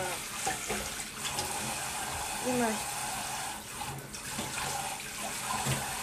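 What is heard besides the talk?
running tap water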